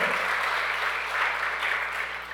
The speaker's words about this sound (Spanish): Vamos, denle el aplauso fuerte.